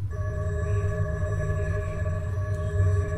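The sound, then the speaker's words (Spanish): A steady electronic hum with layered sustained tones and a deep low drone, a game shield power-up that protects against zombie attacks, held continuously for a few seconds, fairly loud and without voices. “Este es escudo para es para protegernos del ataque de los zombies. Suena así.”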